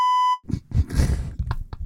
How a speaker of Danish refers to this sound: og der lagde jeg mærke til, at der var nogle ting, der blev bippet nemlig.